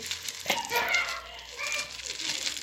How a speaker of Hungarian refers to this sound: Az lenne az első kívánságom, hogy ezen a ősereg buborék fólián találjunk még egy-két kipukkasztandó buborékot, ami...